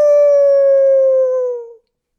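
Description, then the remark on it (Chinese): An old wolf howls once, holding a steady, fairly high tone for nearly two seconds before it sags slightly in pitch and cuts off. The howl is loud and alone, with no talking. “可是这时候，他忽然大叫起来：“ 嗷！”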